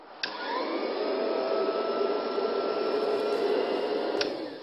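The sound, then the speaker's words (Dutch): A vintage vacuum cleaner, its weight held in the foot and motor so it rests on the floor without vibration, switches on with a click, whirs up to a steady, loud motor drone with a faint rising whine, runs for about four seconds, then clicks off. No one speaks. “want een man die stof, ging stofzuigen”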